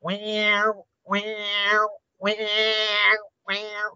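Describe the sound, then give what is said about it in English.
A human voice imitates the distress call of an injured baby duiker, a small antelope lost from its mother, to attract chimpanzees: four loud, nasal wailing cries, each about a second long, separated by brief pauses. “And he did a, an injured duiker call, which sounds like this a, a duiker is a baby antelope, uh, a small antelope.”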